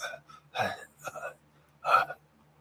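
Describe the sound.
A voice imitates heavy breathing heard through a push-button speaker, three short, breathy, gasping bursts separated by uneven pauses, fairly loud over a faint steady low hum.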